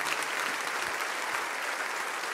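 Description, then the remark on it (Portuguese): A church audience applauds steadily for people coming forward to the front, a dense, continuous wash of many hands clapping at once at an even volume throughout, with no voices standing out. “Vamos aplaudir essas vidas que estão chegando aqui, irmãos.”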